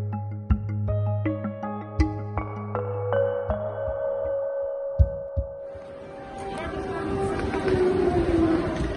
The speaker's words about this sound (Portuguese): As sirenes tocam em Lviv. O som é registado pelos enviados especiais do Observador à Ucrânia na estação de comboios da cidade. Ouvimos as rodas das malas a bater nos degraus enquanto as crianças, mulheres e homens descem as escadas à procura de